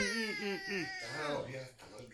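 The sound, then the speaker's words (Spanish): A voice imitates a fussing baby, whining and wailing in wavering, strained cries that rise and fall continuously, fairly loud, like an infant refusing to be fed. “Que es como los bebés cuando le vas a dar la comida que hacen...”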